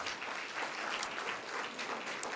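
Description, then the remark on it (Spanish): An audience claps steadily throughout, the men applauding themselves, a dense wash of many hands at moderate volume, with no clear voices standing out. “Los hombres están aplaudiendo ellos mismos.”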